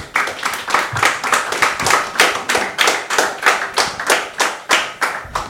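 An audience claps in a steady, even rhythm, sharp hand strikes landing together about three times a second, loud and sustained for several seconds with no talking over it.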